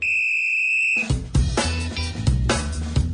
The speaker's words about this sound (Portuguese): Um apito aqui para falar de um personagem que eu não sei se está de bigode ou não atualmente.